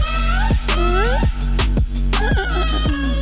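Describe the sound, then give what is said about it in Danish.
A pop song chorus plays loudly on The Voice radio morning show, a sung vocal line gliding over sustained chords, steady bass and regular punchy drum hits roughly every half second. “For vi har tidligere talt om omkvædet, der lyder sådan her.”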